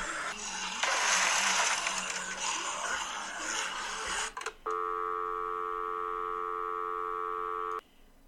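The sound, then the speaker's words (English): A burst of harsh static gives way to a dead telephone line tone from phones that are down, a loud, steady electronic drone that holds unbroken for about three seconds before cutting off. No one speaks. “Yeah, uh, it seems the the phones are down”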